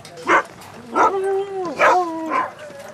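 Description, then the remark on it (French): A sled dog named Ottawa barks and yelps impatiently before its breakfast of kibble and sausage, four sharp, high-pitched bursts over about three seconds, some sliding into drawn-out whiny tones, fairly loud with no talking. “c'est pour ça qu'il y a Ottawa qui demande qu'on aille un peu plus vite. C'est allez dépêche-toi, j'ai faim.”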